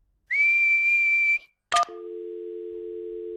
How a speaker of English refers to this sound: What's whistling anyway? You put your lips together and blow. Like this.